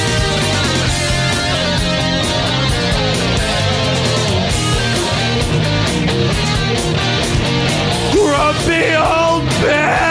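A man yells loudly and continuously over a dense, loud musical backing, his voice rising into a raw, strained scream toward the end.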